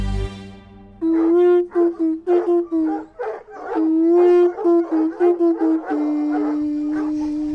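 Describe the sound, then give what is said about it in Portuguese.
Several dogs all around bark and howl together in a loud, overlapping chorus at 10 in the morning, with the steady horn-like drone of a conch shell (búzio) being blown running underneath for most of the time. No one speaks. “é só neste país é que tu podes tocar búzio às 10 de manhã e ter cães a toda volta a ladrar.”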